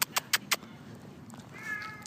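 A small cat gives a single short, fairly quiet meow near the end, preceded by four quick sharp clicks in an otherwise still, faintly humming space.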